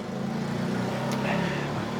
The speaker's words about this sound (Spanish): dejemos pasar la moto de rigor.